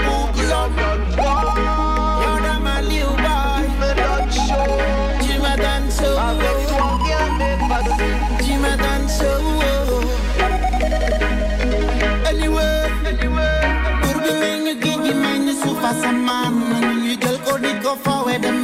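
A reggae song plays loud and steady, driven by a deep, heavy bass line under layered instruments; the bass drops away near the end while the rest of the music carries on.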